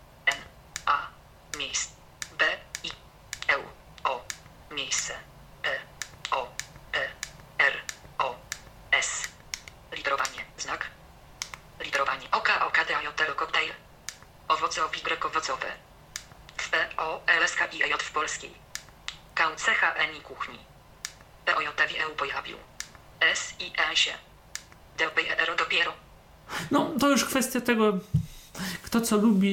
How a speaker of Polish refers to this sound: i bo słyszymy jak synteza czasami e, literuje, jak ona mówi, to już w kwestiach określonego silnika syntezy.